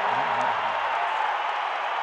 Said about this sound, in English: Well, the crowd's awake now.